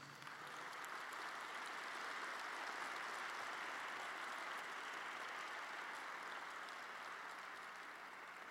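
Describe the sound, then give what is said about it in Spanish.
A large crowd claps together for Jesus at a preacher's call, a steady, dense wash of applause that holds at an even loudness for several seconds, with no voices rising above it. “Dale un fuerte aplauso a Jesús.”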